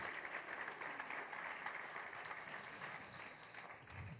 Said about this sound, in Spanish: Denle un aplauso a Dios por este hombre.